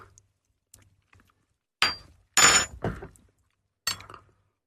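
Glasses clinking together in a toast, a few sharp bright clinks with short pauses between, then a final lighter clink, otherwise quiet.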